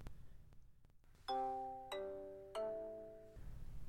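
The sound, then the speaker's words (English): A phone's call-waiting alert plays three bright, ringing chime notes in quick succession, each one sustaining and overlapping the last, clear and fairly loud over a low background hum. “The call waiting on my phone came through loud and clear.”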